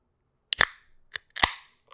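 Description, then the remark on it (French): A beer being opened for an ASMR recording: a sharp metallic pop with a short fizzing hiss, a small click, then a second louder crack and hiss, with no talking. “Une bière, tiens.”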